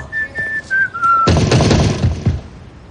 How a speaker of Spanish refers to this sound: que ha llegado en una furgoneta, se acerca silbando al apartamento.